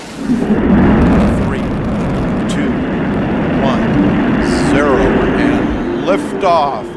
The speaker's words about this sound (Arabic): هذا الصفر المهيب يعلن عن انفجار عظيم يحدث بعده أمر جلل ومن الصفر إلى وعشرين ألف متر في الساعة هي سرعة اندفاع الصاروخ المحمل برواد الفضاء إلى الأعلى